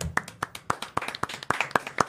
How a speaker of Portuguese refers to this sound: Gente, salva de palmas pro Rodrigo Constantino. Boa.